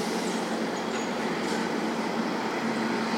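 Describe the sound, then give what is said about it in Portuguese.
A heavy Scania truck rumbles past with a dense, steady roar of engine and road noise that stays loud and even for a few seconds, with no voices. “Passou um caminhão Scania muito bonito, velho.”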